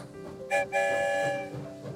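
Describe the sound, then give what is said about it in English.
A train whistle blows in two bright, sustained blasts over a steady rumbling chug, a sound-effect-style departure with no talking, moderately loud. “The story train is on the move.”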